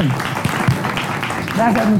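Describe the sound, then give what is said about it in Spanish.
A brief burst of applause, a dense crackling patter of many hands clapping, with a voice starting to talk over it near the end. “Eso sí se aplaude de una comunicóloga, ¿eh?”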